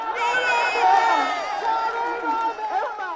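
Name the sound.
rally crowd cheering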